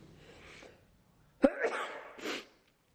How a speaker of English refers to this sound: Gonna sneeze again. Sorry.